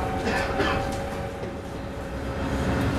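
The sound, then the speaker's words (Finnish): A metro train rumbles steadily along the track after leaving Kulosaari station, heading toward Kalasatama, with a constant low roar and a faint electric whine running through the whole stretch. It is loud, as heard from inside the carriage. “Ja no nyt tää metro lähti Kulosaaresta.”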